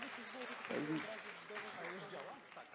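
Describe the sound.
Steady applause from a group, a dense patter of many hands clapping throughout, with people talking and calling out over it.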